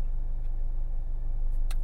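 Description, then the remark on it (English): A steady low engine rumble fills the space, like a car idling while parked with the listener inside, constant and droning, with a couple of faint clicks near the end. “I have the car on. I could have it off, but I feel like you guys are used to it this way, so I guess I'll just do it this way.”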